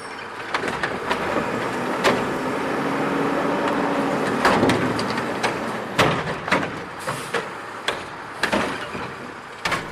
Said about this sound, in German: Das ist ein Müllauto, oder? Cynthias Müllauto.